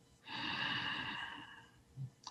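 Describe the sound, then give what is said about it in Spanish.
A long, deep breath drawn in during a guided meditation, steady and airy for over a second before tapering off, followed by a faint soft exhale. “y soplamos para disolver la mente.”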